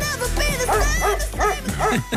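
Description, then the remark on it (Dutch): A dog barks several times in quick succession, loud, with short yelping, high-pitched barks over a steady background hum. “Ik hoor een hond.”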